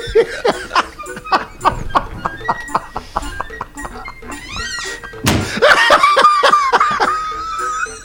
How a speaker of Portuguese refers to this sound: Cara, que, que porta é essa que bate aí? Fecha a janela por causa do vento, porta cara. Porta é fechando. Vento, cara.